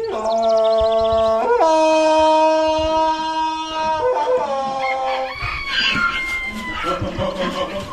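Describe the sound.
A man imitating Tarzan deep in a forest in Alentejo, Portugal, belts out a loud jungle yell, a long sustained cry that leaps abruptly between lower and higher pitches before breaking into rougher, wavering calls at the end.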